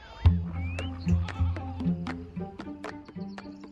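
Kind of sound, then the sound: animal, goats bleating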